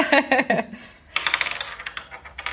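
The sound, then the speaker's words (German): A question die with six questions on it clatters across a hard tabletop in quick, bright clicks, pauses briefly, then rattles and tumbles in a longer burst of fast ticking before settling. “Das sind sechs Fragen und drei davon bitte ich dich zu würfeln.”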